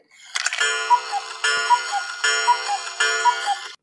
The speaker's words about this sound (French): Ça, c'est un coucou.